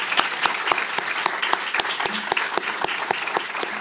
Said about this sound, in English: Join me in a round of applause to two great presentations.